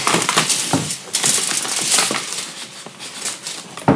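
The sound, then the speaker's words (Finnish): Foil wrapper from a milk chocolate bar crinkling steadily, a dense run of sharp, bright crackles and rustles with brief louder crunches, no voices over it. “Kokonainen maito maitosuklaa levyn folio.”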